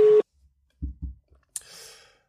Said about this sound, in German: Ja, es klingelt weiter. Also meine Mama hat früher mal gesagt, sechsmal kannst du klingeln lassen, dann musst du auflegen, dann ist keiner da.